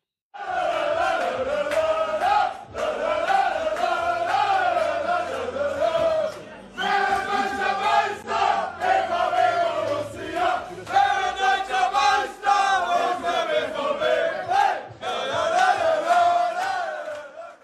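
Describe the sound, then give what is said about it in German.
Bayern players loudly sing the Dortmund song together in the Bayern dressing room, voices rising and falling in rhythmic phrases with brief pauses between lines. “ja, es ist das Dortmund-Lied und sie haben das gesungen”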